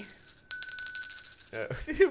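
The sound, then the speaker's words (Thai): A hand bell is shaken rapidly for about a second, giving a bright, high, shimmering ring with quick repeated strikes. As the ringing fades, someone starts talking. “เวลาผมสั่นกระดิ่งผมไม่โปเท่าอาจารย์วัฒนานะ”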